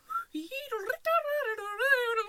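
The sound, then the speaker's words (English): A little boy whistles, imitating birds chirping outside a window, with high, gliding, warbling tones in a quick run of fairly loud vocal chirps and whistles lasting about two seconds. “They put me trying to sleep birds outside my window.”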